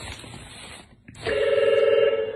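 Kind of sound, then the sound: signal or alarm, telephone ringing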